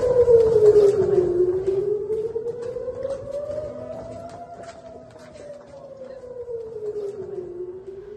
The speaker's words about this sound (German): Es ist 22 Uhr. Ich sitze wieder im Bunkerraum, weil gerade die Sirenen losgingen und ich habe auch gerade gehört, wie das Raketenabwehrsystem der Iron Dome zwei Raketen abgefangen hat.